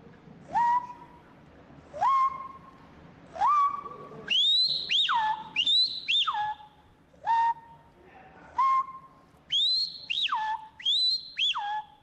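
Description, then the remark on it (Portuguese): A young man whistles an imitation of a large bird from the Amazon in a recording he sent in. Loud upward-sweeping and falling whistled notes repeat in a steady rhythm, with some high two-part swoops and no talking. “Vai para você o grande pássaro oh. da Amazônia.”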